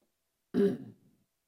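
A single short cough or throat clear, close and fairly loud, with a quick burst that trails off over about half a second, with no talking around it.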